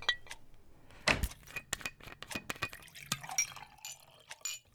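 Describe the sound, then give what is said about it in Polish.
Sparkling water is poured into a glass, with a burst of splashing followed by quick fizzing, crackling bubbles and small clinks that fade toward the end; no one speaks. “Ja, ja wodę poproszę. Ja również. Dziękuję. Ale widzę, że, że tylko gazowana mi została.”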